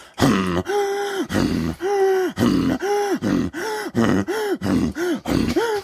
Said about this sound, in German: Ähm, die, die macht äh, Inuit Throat Singing. Weißt du, was das ist?